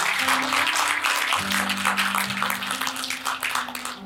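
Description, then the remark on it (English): A large church audience claps steadily and loudly for those who made the decision to follow Jesus, a dense rush of many hands, while sustained low keyboard or organ chords hold underneath. “Come on, can we clap y'all for those that made that decision?”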